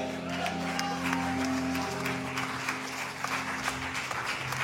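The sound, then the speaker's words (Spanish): Loud applause from an audience, dense and continuous clapping across the whole stretch, with a sustained tonal hum running underneath through the first half. “Le da aplauso fuerte al que vive.”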